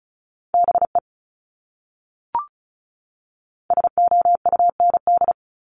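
Morse code tones sent at 35 words per minute: a steady mid-pitched beep keyed rapidly in short and long bursts, a brief group, a pause with a single blip, then a longer fast run of dots and dashes.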